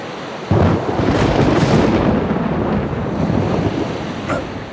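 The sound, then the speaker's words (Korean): A deep, continuous rumble of thunder starts abruptly and rolls on for several seconds, loud and broad, with a brief brighter crackle near the end. No voices. “천둥 소리가 꼭 짐승 소리 같아.”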